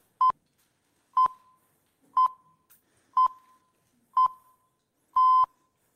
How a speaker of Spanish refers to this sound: Cuando oímos esto sabemos que vamos a escuchar un boletín informativo. Identificamos estos pitos con el consumo de información por la radio.